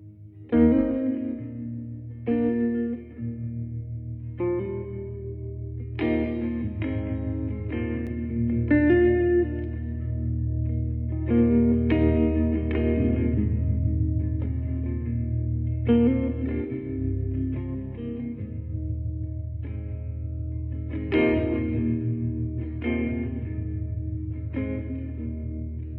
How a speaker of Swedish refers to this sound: Och nu ska vi, tänkte jag att vi skulle lyssna på titelspåret, sista låten på skivan